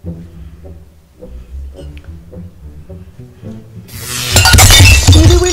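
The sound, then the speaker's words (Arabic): A sudden loud crash of something falling and shattering, with a bright burst of breaking pieces, following a stretch of quiet indoor murmuring and voices. “اش هادشي تهرس راه غير انايا اللي تقب لي اتاي”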